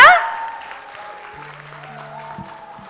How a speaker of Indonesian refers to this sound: Oke, kita sambut dengan tepuk tangan paling meriah. Silakan.